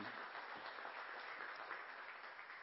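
A crowd applauds steadily, many hands clapping in a dense, even wash of sound that stays fairly loud throughout, with no voices standing out.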